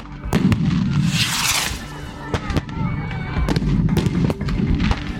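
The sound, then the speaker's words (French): Repeated sharp bangs go off irregularly during a city street demonstration, some loud, from protesters' firework mortars and police stun grenades exploding on the ground, over a constant rumbling crowd din with faint shouting voices. “C'est un mélange des tirs de mortier des manifestants et des répliques des forces de l'ordre avec des euh, grenades de désencerclement qui explosent au sol.”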